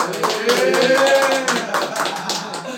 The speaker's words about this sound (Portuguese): Não, vamos bater uma salva de palmas pra ti agora então, mano.